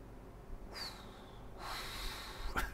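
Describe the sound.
A person at home imitates their running electric fan with two breathy, airy blowing sounds, a short one followed by a longer steady whoosh, then a brief sharp breath at the end. No talking.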